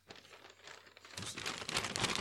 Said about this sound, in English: You hear my rumbling of papers? That's I'm an old man. I use papers. I use papers. I like papers. I like stuff on paper.